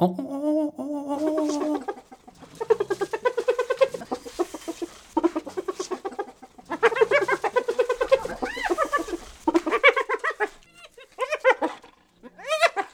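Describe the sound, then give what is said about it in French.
A dominant hyena's giggling laugh: long, rapid runs of identical staccato whoops repeated in bursts with brief pauses between, loud, with no one speaking. “Là, on entend un individu typiquement dominant, avec un rire euh, dont les, notes sont, toutes identiques.”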